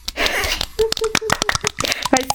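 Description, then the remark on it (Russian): A rapid, irregular flurry of sharp, sharp slaps of hands against cheeks, a dozen or more over a couple of seconds, with brief vocal sounds mixed in. “Все, хлопаем по щекам.”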